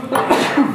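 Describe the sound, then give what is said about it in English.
A single sharp sneeze bursts out, a brief breathy explosion of noise that fades quickly, with no talking around it. “Bless you”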